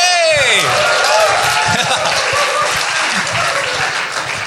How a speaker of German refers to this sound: das mit dem einfachen Applaus kann ich auch.